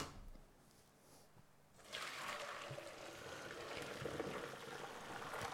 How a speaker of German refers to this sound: Dann gießen wir jetzt die Nudeln ab.